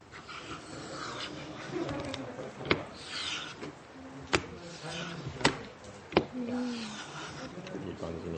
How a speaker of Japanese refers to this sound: もう一回てっぺんからなんか音が違いますねじゃなくてカタンカタンって削れてるはずなんですけど、うんこのカンナが当たった音しかしてないという。